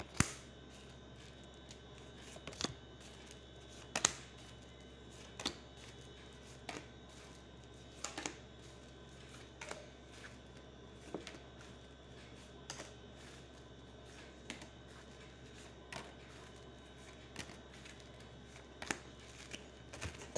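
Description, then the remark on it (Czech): Tarot cards being shuffled for a yearly reading of 2022: soft papery riffling broken by a dozen or so sharp, irregular snaps and clicks, fairly quiet throughout, with no voices and a faint steady hum beneath. “A já už se dívám na vaši fotku, míchám u toho karty a podíváme se teda spolu, jak se bude barvit to období 2022.”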